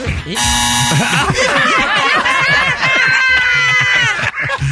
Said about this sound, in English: All right, now, okay, buzzer.